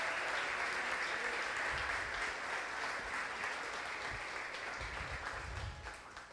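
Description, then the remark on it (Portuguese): A church audience applauds the Lord loudly and steadily in the name of Jesus, a dense wash of clapping that holds strong for several seconds before easing slightly toward the end, with faint voices mixed in. “Então aplauda o Senhor bem forte em nome de Jesus.”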